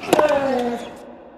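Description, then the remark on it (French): A sharp tennis ball strike is joined by the player's loud, strained vocal grunt of physical effort that slides downward in pitch and trails off within about a second, heard alone. “On retrouve des sons similaires dans d'autres activités, chez les marins qui tirent la corde en expirant bruyamment, ou chez les tennisman qui frappent la balle”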